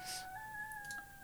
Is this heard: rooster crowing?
yes